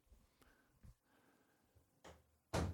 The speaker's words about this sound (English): Can you close the door?